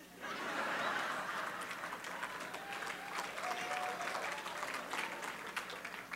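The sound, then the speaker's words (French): An audience applauding the pastor together, a dense steady patter of many hands clapping that swells quickly and holds for several seconds, with faint murmurs and laughter mixed in. “Pour nos amis qui se demandent pourquoi le pasteur se fait applaudir, la soupe joumou est une tradition.”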